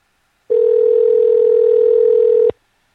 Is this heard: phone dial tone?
yes